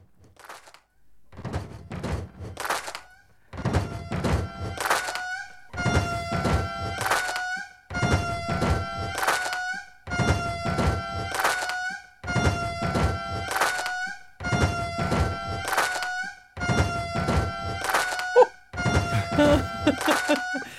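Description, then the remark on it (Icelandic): An indri lemur mix made by the US radio station NPR: wailing, tonal indri lemur calls set over a steady thumping pop beat, with loud bursts repeating roughly every two seconds and sustained howling notes running across each bar. “kollegar okkar hjá eh, bandarísku útvarstöðunni NPR þeir eh, byggur til svona smá indra mix til þess að hjálpa manni að heyra þetta og tengja við, við vinsælt dagulag.”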